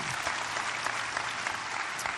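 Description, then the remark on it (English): Steady audience applause as a preacher introduces his family members, a dense wash of many hands clapping at an even, sustained level with no pauses or voices standing out, continuing throughout. “So, hey, for those of you that that just makes you sick and you're tired of clapping, let's get in the Word, okay?”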